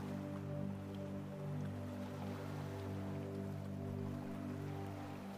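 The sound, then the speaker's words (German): A continuous, soft wash of ocean waves rolling onto a beach, steady and even throughout, with a low sustained drone humming underneath. No one speaks. “Das Rauschen des Meeres begleitet dich in dieser Meditation und hilft dir beim Entspannen.”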